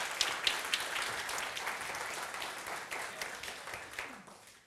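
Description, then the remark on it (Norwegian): Steady applause from an audience at a church gathering as a speaker leaves the stage, a dense wash of many hands clapping at a moderate level throughout, gradually thinning toward the end with no voices heard. “Kan vi ikke gi en klapp på veien ned, da?”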